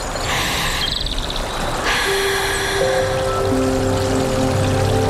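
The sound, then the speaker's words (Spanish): Steady babbling water of a stream (arroyo) in Córdoba province flows continuously, with scattered bird chirps above it and a few sustained tones joining partway through. “Ese momento en que te descalzas, metes un dedo en el arroyo”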